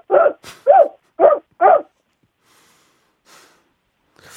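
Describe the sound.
A voice imitates a puppy that has finished its food and begs for more, with four short, whiny yelping calls in quick succession, loud, followed by quiet breathy sounds.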